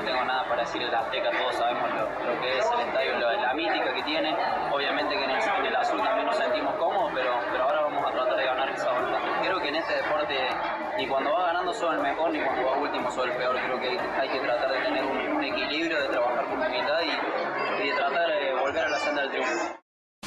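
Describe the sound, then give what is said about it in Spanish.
A dense, noisy crowd shouting and talking all at once, loud, with a steady roar of overlapping voices that fills the whole stretch before cutting off abruptly, at footballer Rodolfo Rotondi's autograph signing in a plaza in the south of Mexico City. “las palabras de Rodolfo Rotondi se escuchan tanto griterío, estaba en una firma de autógrafo y bueno, la verdad que se hizo ahí un buen caos en una plaza al sur de la Ciudad de México en la firma de autógrafos.”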